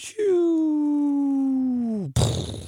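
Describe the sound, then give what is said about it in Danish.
On the Danish radio station The Voice's morning show, a voice imitates the cartoon sound of a bomb landing: one long, steady whistling tone that slowly glides downward for about two seconds, then cuts off into a short, loud burst of noise. “Og den der bombelyd, jeg taler om, det er den der, som du godt kender fra tegnefilm, når øh, at den lander, så siger sådan,”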